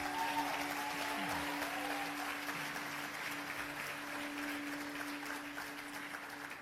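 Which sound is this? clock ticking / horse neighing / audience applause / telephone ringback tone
audience applause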